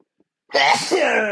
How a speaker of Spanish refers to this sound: Ah, ya saben que estornuda para su pinche madre. Si ya tienen tiempo en el podcast, ya saben que mis estornudos se truenan hasta su casa.